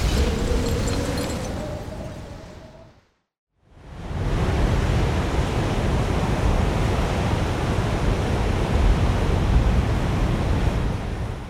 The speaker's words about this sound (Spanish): Así suena un huracán.